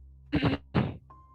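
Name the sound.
imitated throat clearing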